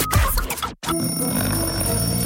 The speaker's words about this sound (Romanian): A sunat ceasul.